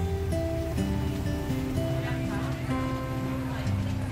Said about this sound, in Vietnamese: xe đã di chuyển rồi mọi người có nghe thấy tiếng động cơ xe đang chạy không